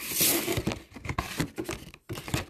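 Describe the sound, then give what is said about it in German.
Rustling and crinkling of a microphone package as it is opened after a cut with scissors, a busy stream of dry crackles and rips with a brief pause near the end. “Ah, so ein Schnitt mit der Schere. Easy going. Dann ach, öffnen.”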